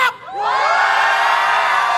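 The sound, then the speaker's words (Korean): A large audience filling about a thousand seats in front of a special stage erupts into loud, sustained shouting and cheering, with high-pitched screams and whoops rising after a brief dip and holding steady as a dense roar. “지치지 말고 소리 질러!”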